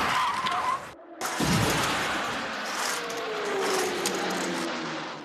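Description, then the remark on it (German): A small electric motor whines and then breaks off as a toy car on a slot-car racetrack skids out of the curve, followed by a loud rattling, scraping clatter and a fading mechanical hum. “dass es diese Autos gerne mal aus der Kurve haut.”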